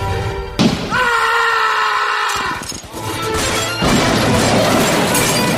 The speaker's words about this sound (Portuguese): Quando vocês estão conversando, vocês estão ouvindo barulho de tiro, quebra-quebra, é o que vocês estão ouvindo, de onde vocês estão.